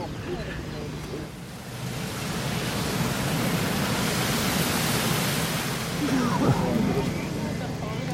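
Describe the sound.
Strong wind gusts roar steadily across a microphone at the sludge loading area of a treatment plant, a dense, rushing noise that dips briefly then swells and stays loud, with a low rumble underneath and faint voices in the background.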